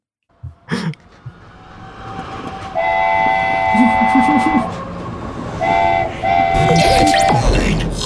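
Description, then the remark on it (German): A train sound effect, triggered by pressing a button: a train rolls in with a steady rumble, sounding its horn in two long sustained blasts with a brief break between, loud, ending with a burst of hissing and clatter. “ich, ich drück mal auf den Zug, oder?”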